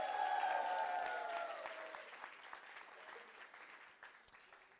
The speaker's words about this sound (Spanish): Si tú lo crees, dale un aplauso fuerte y un grito de victoria.